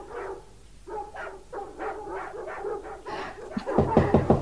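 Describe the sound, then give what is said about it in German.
Dogs whimper and yip in a quick, steady series of high whines while someone is at the door, then break into a burst of louder, denser barking at the end. “Die Hunde sollen still sein.”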